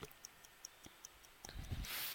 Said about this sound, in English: Okay, Clock, stop the clock.